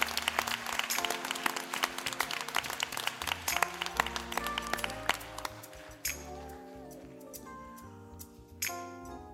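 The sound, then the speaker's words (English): The Good Hope audience breaks into loud, dense applause to thank visitors for coming out, carrying on for several seconds, then thinning and fading while steady sustained musical tones hold underneath. “Good Hope, let's, let's give them a round of applause and just a thank you for coming out.”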